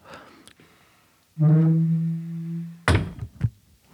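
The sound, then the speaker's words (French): A door bumps into someone in a boarding school: a long, low creaking groan, then a sharp thud and a second, smaller knock half a second later. No one speaks. “Je me suis fait agresser par une porte.”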